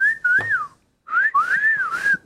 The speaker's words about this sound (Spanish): Pues aquí nada más dos de la mesa saben chiflar. ¿No sabes chiflar? Es que. No. Eh, chiflo con volumen muy bajito.